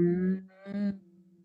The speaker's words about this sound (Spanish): Y simplemente mueves la lengua mm, y haces el sonido mm, ah